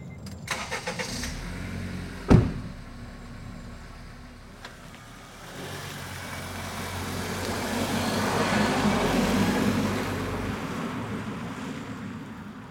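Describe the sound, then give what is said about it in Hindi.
A car engine cranks and catches with a sharp burst near the start, then idles and revs up into a steady, rising drive-away hum that swells and holds to the end, as a car sets off at evening towards Chandranagar. “शाम होते ही राजू अपने कैमरामैन और आर्यन के साथ अपनी कार से चंद्रनगर चल दिया”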